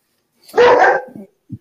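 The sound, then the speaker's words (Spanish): A dog gives one loud bark that trails off into a softer, rougher tail, followed a moment later by a brief faint yip. “Hasta el perro se rió.”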